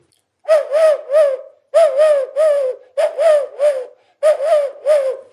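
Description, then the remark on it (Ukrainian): A bird call made from a walnut shell hollowed out by a crow imitates a turtle dove's coo, blown in four loud phrases, each a quick run of three soft, throaty purring notes with short pauses between. No one speaks. “Я знайшов горіх. Ворона видовбала, вже я маю музичний інструмент. А він імітує горлицю, пташку.”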